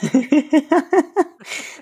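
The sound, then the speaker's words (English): A comic sound effect of Fozzie being yanked by his tie into a typewriter: six quick, rhythmic vocal yelps in a row, then a short, harsh scraping whoosh, fairly loud. “is the sound of Fozzie getting pulled by his tie into the typewriter.”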